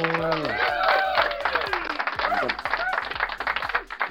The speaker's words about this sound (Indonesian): iya gila fuck boy tepuk tangan dulu buat fuck boy